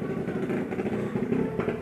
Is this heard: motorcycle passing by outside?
yes